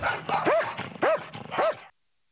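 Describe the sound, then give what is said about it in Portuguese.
A dog barks three times at an even pace, each bark sharp, with a short silence after the last one. “Mas agora a gente, ele tem que começar a desligar da cabeça dele que ele é um cão de trabalho, né?”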